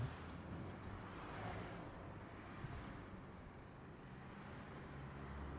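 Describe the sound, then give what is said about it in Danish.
A steady, fairly loud roar of evening road traffic, about fifteen cars passing someone walking home, a continuous low rumble with no single car clearly standing out. No one speaks. “Femten biler.”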